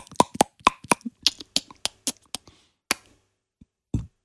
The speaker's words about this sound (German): Ich Lakritzbonbon gegessen, danach ein Sprudelwasser getrunken, musste jetzt rülpsen und der, der Rülpser riecht nach Uso.